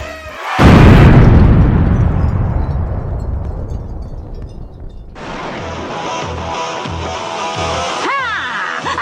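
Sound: explosion sound effect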